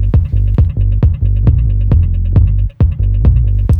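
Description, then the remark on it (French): A loud, deep bass line throbs beneath a steady kick drum thumping about twice per second, layered over a sampled sound, with a brief dropout near the end before the pulse resumes. No voices. “Et si je mets la basse, normalement vous allez reconnaître.”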